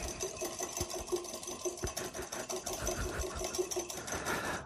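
Egg yolks and sugar being whisked in a bowl, the yolk turning lighter: a steady mechanical whir with rapid, rhythmic scraping of sugar crystals and clicking against the sides, continuous throughout with no talking.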